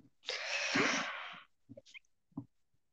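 A single loud, hissing sneeze lasting about a second, followed by a few faint sniffs and small mouth noises, with no talking.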